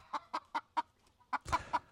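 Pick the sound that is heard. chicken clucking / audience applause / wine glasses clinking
chicken clucking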